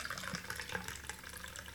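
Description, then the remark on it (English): A shaken South Side cocktail made with gin pours steadily from a strainer into a martini glass, a soft continuous trickle of liquid with faint splashy flickers, fairly quiet, with no talking. “So let's strain”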